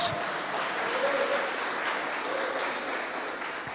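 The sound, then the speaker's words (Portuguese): An audience applauds Jesus loudly, a dense, steady wash of many hands clapping that holds for the full few seconds, with faint voices mixed into the noise. “E pode aplaudir a Jesus bem alto, gente.”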